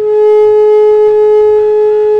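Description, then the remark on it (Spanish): A telephone disconnect tone after a listener's call to a radio show dropped: a loud, steady, mid-pitched electronic hum holding unbroken for a couple of seconds, with faint low rumbling underneath and no talking. “Ahí yo escuché el tutú.”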